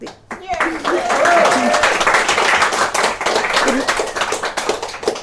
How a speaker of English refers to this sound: So, a big hand of applause.